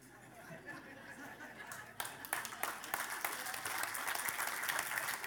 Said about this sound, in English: we can add 10 seconds to that clap